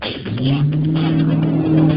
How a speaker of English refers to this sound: Everybody, hold up. Don't hit me. That's a car, man. It's coming right at me just now.